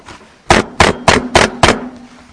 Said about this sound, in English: Here I am. I stand at the door and I knock.